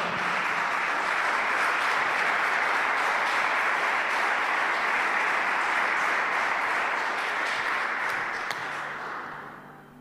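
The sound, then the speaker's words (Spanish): Sustained applause from a large crowd, a dense, steady wash of many hands clapping at once that holds strong for about eight seconds before tapering off at the end. “Démosle un fuerte aplauso a esta palabra.”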